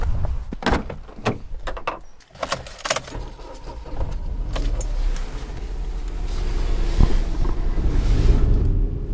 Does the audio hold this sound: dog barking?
no